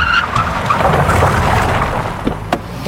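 A car engine roars and its tires skid and squeal as it screeches to a halt, a sharp burst of noise near the end.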